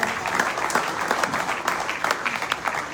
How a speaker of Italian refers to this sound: Ma sono tre amici a cui vi chiedo di dedicare un caloroso applauso.